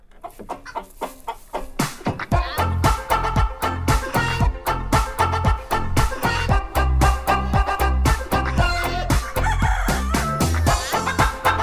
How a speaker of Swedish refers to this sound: Kuckeliku.